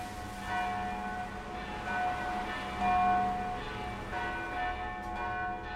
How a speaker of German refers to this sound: Am nächsten Tag komme ich gegen Mittag in Sigishwara, also Schäßburg, an – auf dem Weg vom Bahnhof zum Zentrum befindet sich die christlich-orthodoxe Dreifaltigkeitskirche der Stadt. Die Glocken läuten zu einer Beerdigung.